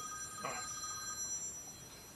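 A telephone rings quietly, a steady electronic trill sounding through a soft background, with a brief louder burst near the start and no one talking.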